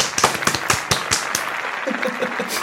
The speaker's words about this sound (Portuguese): Palmas.